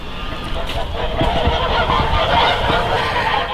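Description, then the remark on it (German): A flock of geese on a small farm honks continuously, overlapping calls forming a dense, noisy chorus that fills the whole stretch without pause. “wir betreiben eine komplette Direktvermarktung rund um die Gans auf einem kleinen landwirtschaftlichen Betrieb”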